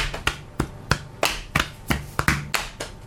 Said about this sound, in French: Tape sur les cuisses, tape sur le torse. Ouais, cuisse, torse. Cuisse, torse, torse, torse, torse, torse, torse.